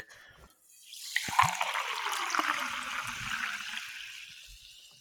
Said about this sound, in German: Hat man das gehört? Das ist sehr leise. Ich muss auf anderes Wasser umsteigen, aber das Eingießen hört man immer sehr gut. Achtung.